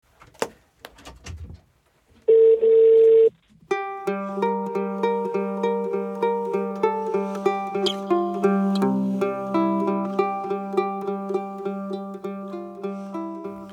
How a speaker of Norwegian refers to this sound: Skal jeg bare prøve mange ganger, eller? Nå ringer det.